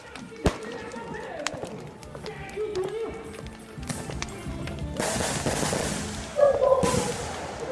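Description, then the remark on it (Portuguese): Firecrackers go off in the streets of Surubim, in the Agreste Setentrional of Pernambuco, Brazil, where people have lit bonfires: sharp loud bangs and scattered pops at irregular intervals over a steady wash of street noise, with voices murmuring in the background. “Se olhar para o céu, dá para ver a fumaça subindo, sem contar com o barulho de bombas nas ruas e nem vou falar das pessoas se aglomerando por aí.”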